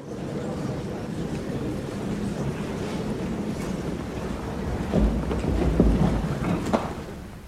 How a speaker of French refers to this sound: c'est en fait euh, le brouhaha euh, dans une salle de théâtre juste avant que le spectacle ne commence. C'est ah, dingue, hein. c'est donc en quelque sorte le public qui s'accorde